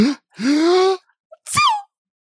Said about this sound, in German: Mach nochmal, nies nochmal.